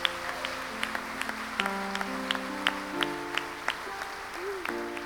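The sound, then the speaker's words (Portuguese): A church audience applauds God in worship with steady, scattered clapping over sustained keyboard-like chords that shift pitch underneath, holding a moderate level throughout with no one speaking. “Como igreja, nós te adoramos e aplaudimos o teu nome, porque esse é o maior milagre de todos, em o nome do Senhor Jesus.”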